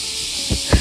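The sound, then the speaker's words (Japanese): A steady, dense high-pitched buzz of many cicadas in the trees drones without a break, with two soft low thumps near the end and no voices. “セミすごいなやっぱここの木にめっちゃセミがいるんやと思いますね”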